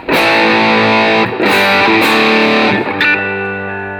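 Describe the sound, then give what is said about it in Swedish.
Loud, buzzy electric guitar through a fuzz pedal, four thick chords struck in turn, each sustaining with heavy saturated distortion, the last one left ringing and slowly fading. No voices. “Nu, nu står det på fussljudet då.”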